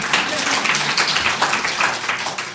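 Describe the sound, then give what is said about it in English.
An audience claps to show they have read the Alice Munro story behind the movie Hateship, Loveship, a steady, dense patter of many hands, holding an even loudness throughout the short stretch without dying away. “Clap. Don't show hands. Clap.”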